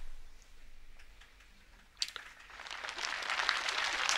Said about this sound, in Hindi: बस तालियां ज्यादा नहीं बजाओ ये ऊंची बात सुनो